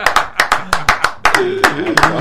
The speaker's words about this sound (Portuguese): Salva de palmas aí.